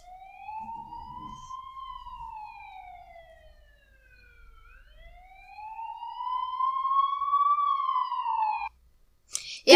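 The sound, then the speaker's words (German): An ambulance siren wails in long, slow rising and falling sweeps, loud, growing stronger in the second half before cutting off abruptly, with a brief noisy burst at the end. “Ich glaube, wir, wir müssen, gehören beide in den Krankenwagen.”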